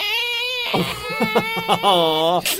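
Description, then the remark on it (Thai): A long, squealing creak of the unoiled door of an undersea library swinging open, with a high whining tone that stutters into short groaning pulses, then stretches out again before stopping. Fairly loud. “พร้อมจริงหรือเปล่าเดี๋ยวฟังเสียงเราไม่ค่อยแน่ใจเลยไม่ค่อยได้หยอดน้ำมันประตูนะโอ้โหห้องสมุดเปิดเรียบร้อย”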